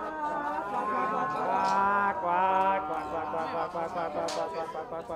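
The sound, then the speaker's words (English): Masked figures with long beaked masks, entering in groups of four or five, make a continuous, overlapping droning sound with clucking, bird-like calls, steady, broken by a couple of sharp clacks from beaks rigged to clap with each chirped syllable. “Uh, they enter in uh, groups of four or five and make a droning, clucking sound along the way, which you can hear now.”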